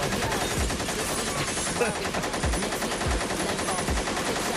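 gunshot sound effects

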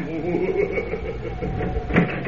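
door being opened

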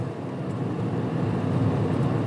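car engine braking

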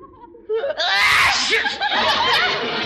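sneeze

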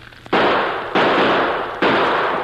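gunshots

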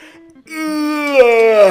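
exaggerated yawn

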